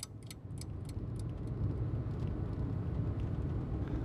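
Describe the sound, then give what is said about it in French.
An older-model taxi drives through the nearly deserted streets of a big city with a steady low rumble of engine and road noise, joined by a few light rattling clicks near the start. No one speaks. “Tandis qu'il roule dans les rues quasi désertes de la grande ville, Harold a les yeux fixés sur le rétroviseur intérieur de son taxi”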